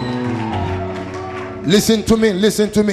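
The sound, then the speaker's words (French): A crowd of voices in a church shouts and cheers together, with scattered clapping, and then a single loud voice cries out in sharp, rising and falling bursts above the noise. “Est-ce que je peux entendre le véritable fils de Dieu crier Shouting in the house.”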